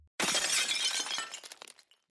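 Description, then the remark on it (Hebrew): Glass shatters in one sudden, loud crash, followed by a scatter of smaller shards tinkling and settling for about a second before it falls silent. No voices. “מה זה אומר שבירת הכלים? מה נשבר?”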